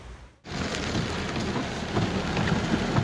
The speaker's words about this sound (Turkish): Trakya ve Ege kıyılarında bekleniyordu. Beklendiği etkiyi yer yer gösterdi kuvvetli sağanaklar.